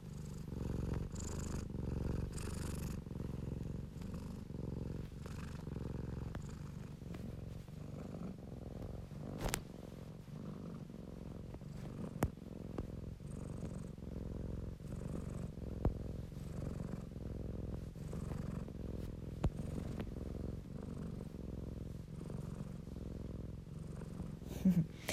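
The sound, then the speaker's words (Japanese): A cat purrs steadily for the whole stretch while kneading a blanket with its front paws, a low continuous rumble with a soft rhythmic pulse, punctuated by a few faint clicks and rustles. “聞こえますかねゴロゴロ喉鳴らしてるんだろうとかどこ鳴らしてるんだろうねはいえっ、ー、と、ま、前足で毛布をふみふみしながらはい猫がよくとるポーズなんですけどはいちょっとだけ音をとってしまいましたゴロゴロ音がなんかね結構癒しの音っぽいんですよね”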